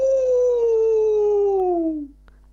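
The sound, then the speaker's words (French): A single long, loud wolf howl, held steady before slowly sliding down in pitch and trailing off after about two seconds, with no voices around it. “Ah, cela peut être One Honey nous avons des orang des loups.”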